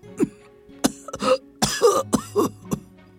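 An old man coughs while getting up, in a rough, irregular fit of about six or seven harsh, throaty bursts, some clipped and some drawn out and wheezy, with no talking.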